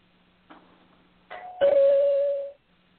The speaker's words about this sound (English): pauses, confused, not sure who is ringing the bell this early. She is hesitant at first, unsure if she should answer the door.